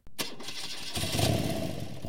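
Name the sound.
motorcycle engine starting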